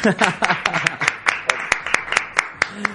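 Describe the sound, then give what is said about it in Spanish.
Steady, rhythmic hand clapping from a small group, sharp claps landing at an even quick pace, with voices and laughter mixed in near the start; applause welcoming writer Juan Gómez Jurado. “Un aplauso, por favor.”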